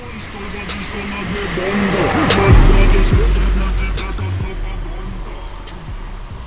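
A car approaches and passes, its sound swelling to a peak and then fading, with the tone sliding noticeably lower in pitch as it goes by, a Doppler pitch shift.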